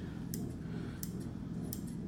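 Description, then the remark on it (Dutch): A pair of certified medical Sheffield scissors snips shut three times at a steady, unhurried pace, each cut a crisp metallic click over a low background hum, with no one talking. “Ja, dit is echt een goede schaar.”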